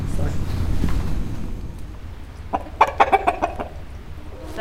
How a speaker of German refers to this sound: das ist unsere Hühnerschar. Das alte Hühnerhaus haben wir auch wieder hergerichtet, war ziemlich zerfallen, von Ratten zerfressen.